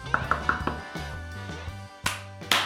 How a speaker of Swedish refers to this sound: Nu ska vi knacka på här.